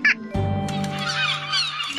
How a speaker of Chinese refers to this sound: 六只在笑的海鸥